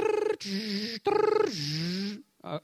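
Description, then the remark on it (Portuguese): A voice mimics the screech of a dial-up fax modem dialing into the internet: shifting whistled tones with a raspy hiss in short, loud bursts, ending in a brief choppy sputter. “Mas depois que passou a existir, existia a tal da, da do fax modem, né? Aquele, se discava a internet, aquele...”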